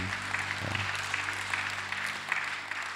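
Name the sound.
audience applause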